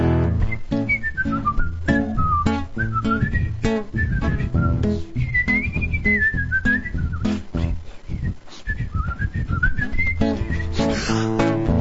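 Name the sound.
human whistling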